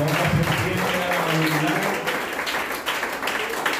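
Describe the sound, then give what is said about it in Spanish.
An audience applauds the Lord in the morning with steady, dense clapping that fills the whole clip, while a voice speaks over it during the first half before the applause continues on its own. “Hermano, usted se va a poner y le va a dar un aplauso al Señor de la gloria en esta mañana.”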